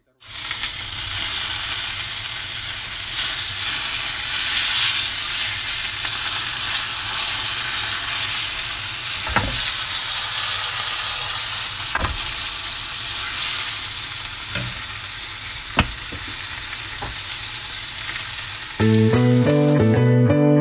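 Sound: chicken sizzling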